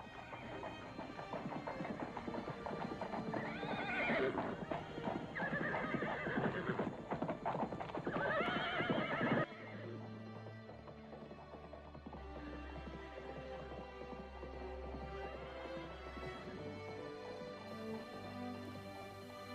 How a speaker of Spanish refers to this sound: Mientras Saulo y sus hombres galopaban a gran velocidad hacia Damasco, una luz rodeó a Saulo, y éste cayó de su caballo.